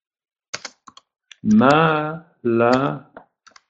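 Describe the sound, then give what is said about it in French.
Quick computer keyboard taps, typing the name Malapert into a chat, come in short irregular bursts at the start and end, with a drawn-out voiced sound from someone in the middle. “Malapère je vais écrire ce nom dans le chat.”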